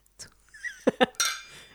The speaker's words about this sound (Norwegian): Jeg eh, sitter med krystallglassene og er litt redde for å knuse dem eh, i for ivrig skåling. Men skål, da. Skål.